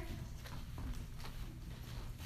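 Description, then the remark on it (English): Horse hooves clip-clop at a steady, unhurried walk, muffled and fairly quiet over a low rumbling background, from a horse drawing a waiting dog cart, with no one talking. “The dog cart is waiting, sir.”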